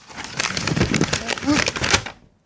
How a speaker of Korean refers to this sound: 그건 비닐 소리가 아니라 종이 소리잖아요 네, 근처에 비닐이 없습니다